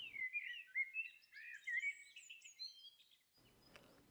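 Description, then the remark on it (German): Birds sing steadily in the treetops, a tangle of bright chirps and warbling phrases from several birds, at an old Jewish cemetery on a small green hill beside the main road from Endingen to Langnau, ending with a brief rustle of faint background noise. “Nur die Vögel hört man es ist eine eigenartige Atmosphäre da.”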